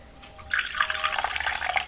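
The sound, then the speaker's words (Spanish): Hot coffee, freshly brewed in a coffee maker, being poured into a cup: a steady, splashy trickle of liquid starts after a brief quiet moment and keeps running at an even, moderate level until the end, with no voices. “Estaba la cafetera colando, así que lo voy a poner en la taza”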